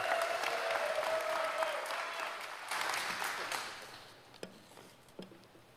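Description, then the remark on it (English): An audience gives one more round of applause to encourage a speaker, a steady, dense burst of clapping for several seconds, then it thins out and fades, ending with a few scattered individual claps. “Let's give him one more round of applause because, you know, the extra encouragement.”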